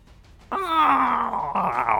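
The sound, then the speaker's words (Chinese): A big man whose leg has just been kicked and broken, lying face-down on the ground, lets out a loud, drawn-out groan of pain, starting abruptly and sliding downward in pitch, then straining into a second harsher cry that continues to the end. “连续爆脆声的声音响起，大汉的腿直接被踢断了，整个人翻趴在地上，哀嚎不已。”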